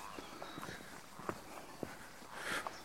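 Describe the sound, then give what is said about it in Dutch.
Footsteps walk steadily along a wet forest path, each soft squelching step fairly quiet, with a faint outdoor hiss in the background. “Nou, we lopen weer een stukje door wat ja, nattere omstandigheden.”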